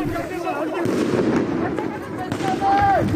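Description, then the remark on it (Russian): A couple of sharp gunshot bangs crack through a dense, noisy street clash in Dijon, France, full of shouting voices and rumbling crowd noise, with a rising and falling whistle-like tone near the end. “На видео, которые тогда появились в сети, были видны люди в масках, горящие автомобили и слышны выстрелы.”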